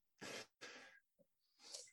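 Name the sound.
throat clearing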